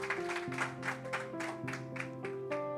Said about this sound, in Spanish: Si usted lo cree, denle un aplauso fuerte al Señor. Vamos. Dale un mejor aplauso. Vamos, dale un mejor aplauso al Señor.